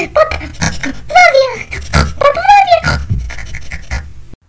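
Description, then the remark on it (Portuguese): A pig grunts and oinks in a quick series of snorts and short squealing calls, fairly loud, with two longer rising squeals standing out before it stops abruptly. “Lamento, minha senhora porquinha.”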